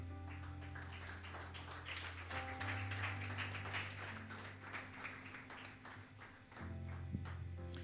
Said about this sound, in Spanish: Póngase de pie. Póngase de pie y un fuerte aplauso al Señor.